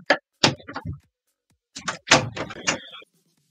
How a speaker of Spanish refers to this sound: ¿Podéis cerrar la puerta, por favor?